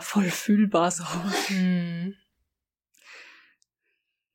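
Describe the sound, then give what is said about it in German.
A person speaks for about two seconds, then after a brief pause a single short, breathy sneeze bursts out, somewhat quieter than the voice, followed by silence. “Ja, das war ein sehr männlicher Nieser.”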